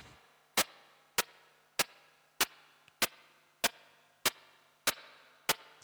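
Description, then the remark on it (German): A steady series of about ten sharp, short-attack noise bursts made on a synthesizer with a very short envelope attack, evenly spaced roughly every half second, each with a brief fading tail, resembling footsteps echoing in a hall. No voices. “klingt so fast wie so Schritte in einer Halle oder sowas.”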